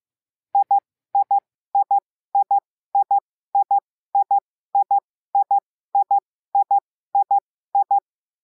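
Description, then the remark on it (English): Morse code letter I sent over and over: thirteen pairs of quick, clean beeps at a steady pace, each pair two short dits, clear and alone with silence between. “I sounds like a dit, dit, dit, dit, two dots, dit, dit. Here is what it sounds like in uh, LCWO.”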